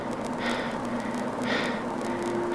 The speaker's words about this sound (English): There was no answer, just his breathing. And suddenly, nothing.